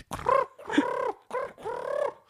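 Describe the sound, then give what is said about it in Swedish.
Someone imitates the pigeon-like cooing of the flying piranhas in a film with their voice: four warbling, throaty bursts in quick succession, fairly loud, with brief pauses between them and no other talking. “låter som katter. Nej, duvor.”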